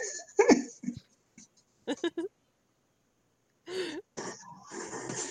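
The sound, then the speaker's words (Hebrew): A female dog snores loudly while asleep, rough, rattling snorts coming in uneven bursts separated by short stretches of quiet. “לפה, את נוחרת חזק, ממי שלי.”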